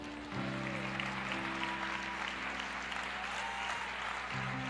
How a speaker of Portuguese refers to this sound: Aleluia, aplauda ao Senhor.